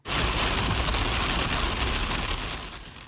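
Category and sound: nature, rain and thunderstorm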